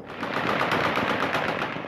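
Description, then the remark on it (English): Dense, continuous automatic gunfire from multiple guns of all sizes, rapid overlapping bursts rolling together into a steady roar, with no speech; celebratory gunfire lighting up the night sky across Kabul, Afghanistan, as the Taliban celebrate the final departure of the U.S. military. “From multiple guns of all sizes and description, automatic gunfire lit up the night sky in a rolling thunder.”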